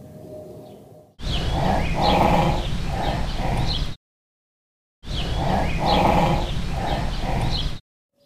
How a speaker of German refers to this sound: Wir machen mal noch einen, noch einen zweiten und äh, hören mal genau hin, was uns das Nashorn jetzt sagen möchte.